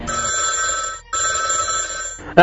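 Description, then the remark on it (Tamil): A telephone rings in two steady electronic bursts with a short gap between, loud, followed by a brief burst of other sound at the end. “sir நீங்க கொடுத்த number கூப்பிட்டேன் அது ராங் நம்பர்”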